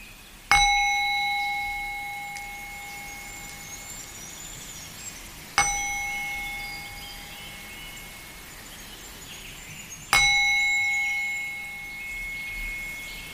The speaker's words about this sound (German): Und dann lade ich dich ein, dass du nun deine Augen schließt und dem Klang der Klangschale folgst.